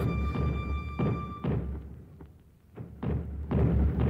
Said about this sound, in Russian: Огонь из всех пушек.